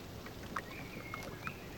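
Faint lake water laps softly by a small rowboat moored at a jetty in the early morning, a steady gentle wash with a few light splashes, while a thin whistle of blackbirds drifts faintly above.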